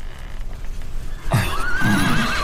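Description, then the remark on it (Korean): A horse whinnies loudly among crowds of people and horses at a military training ground lit by blazing lamps, after a quiet, murmuring start, its wavering cry rising and trembling for about a second over a low rumble of background noise. “두 사람이 남소문 어귀에 이르러서 멀리 바라보니 훈련원 쪽에 사람과 말들이 빽빽하게 들어차고 등불이 휘황찬란하였다.”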